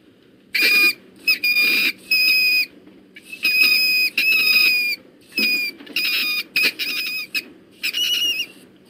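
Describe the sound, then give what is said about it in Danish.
A mink squeaking in a rapid series of shrill, high-pitched bursts, some short and some drawn out, fairly loud with brief pauses between calls and no talking. “det er altså ikke lyden af et eller andet underligt øh, pivdyr, det er lyden af en, øh, en mink.”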